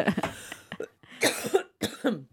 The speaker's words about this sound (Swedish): Du ljuger så du hostar här nu.